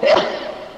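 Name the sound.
sneeze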